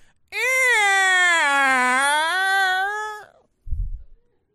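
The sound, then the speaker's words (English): A voice imitates the creaking hinge of a church door as someone sneaks in, with one long, drawn-out squeal whose pitch sags and rises over about three seconds, followed by a short, low thump. “Well, one night, I remember it just like it was yesterday, I'm sneaking in as I always did, and for some reason the hinge went,”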